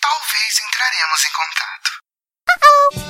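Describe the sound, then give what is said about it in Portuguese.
An answering machine beep: a short, steady electronic tone after a brief pause, preceded by a voice greeting callers and asking them to leave a message after the beep, and followed by a low rumbling noise. “Então deixe a porcaria da sua mensagem logo após o bip”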